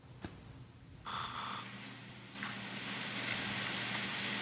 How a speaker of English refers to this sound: What is that? Do you hear it? Yeah. sounds like a hummingbird. It sounds like a hummingbird. Or a woodpecker. That's uh, oh. that's you snoring.